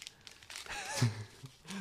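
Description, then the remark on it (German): Crisp crinkling and rustling of paper being unwrapped from a package, in irregular bursts over a couple of seconds, with a brief soft vocal sigh in the middle. “Hier, für alle, die drei Leute draufstehen, wenn äh, etwas aus Papier ausgepackt wird, die können jetzt schon mal die Hose aufmachen.”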